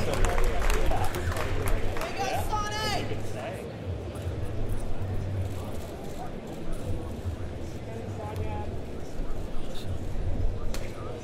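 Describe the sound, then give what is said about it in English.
A large audience at a wakeboarding Hall of Fame ceremony claps and cheers loudly for an honoree for the full stretch, a steady roar of applause with scattered shouts and a brief whoop rising near the start. “Get loud one more time. Keep it going”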